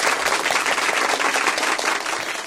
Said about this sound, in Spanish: No, no, volveme a poner los aplausos, gente, porque esta es la semana en la que